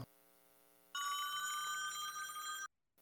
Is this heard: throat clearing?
no